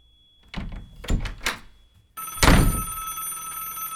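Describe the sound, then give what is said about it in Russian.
A few dull knocks and clunks as a front door is being locked, then a telephone bell suddenly starts ringing loudly and keeps jangling steadily to the end. “Запирая входную дверь, он услышал дребезжание телефона.”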